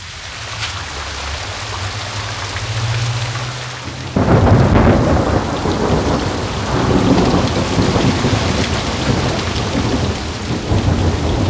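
Steady rain hisses throughout while a low thunder rumble rolls underneath for the first few seconds, then the downpour suddenly grows louder and heavier, pattering densely until the end. No voices.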